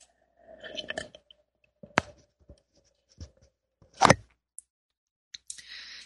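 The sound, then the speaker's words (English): Someone takes a sip of tea from a cup: soft handling and clinks, then a brief slurp, with a few quiet taps and rustles around it and no talking. “And take a sip of my tea here.”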